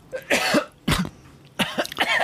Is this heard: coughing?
yes